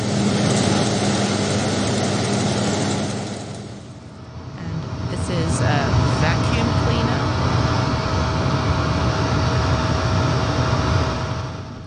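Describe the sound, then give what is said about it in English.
A steady, loud whoosh of air-conditioner white noise with a low hum, briefly dipping and shifting about a third of the way in, then continuing evenly to the end. “And uh, maybe air conditioner?”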